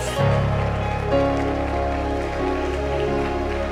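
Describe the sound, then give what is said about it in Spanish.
An audience applauds the grace of God during a Spanish-language sermon, a dense, steady wash of clapping that holds throughout, with sustained musical tones underneath and no one speaking. “Alguien dele un aplauso a la gracia de Dios.”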